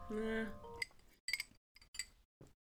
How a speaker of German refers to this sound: Diese Strohhalme klingen ja. auch richtig eklig, ne? Ja. Sorry. Entschuldigung dafür.